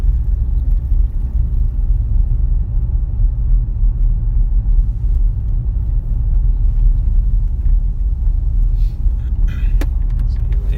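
A car drives steadily, its low engine and road rumble filling the sound from inside the vehicle, with a faint brief squeak near the end.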